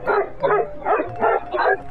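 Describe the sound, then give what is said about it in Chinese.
A dog barks in a quick series of about five sharp, evenly spaced yaps, bright and fairly loud, with no talking over them. “趁着妈妈不注意，他和艾琳娜把骨头喂给了狗狗。”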